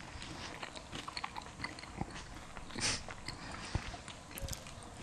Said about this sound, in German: Ich weiß nicht, wie das so ist für den Zuhörer, mir beim Kauen zuzuhören. Aber es ist ja tatsächlich immer, wenn man beim Essen nicht redet, dann ist geil.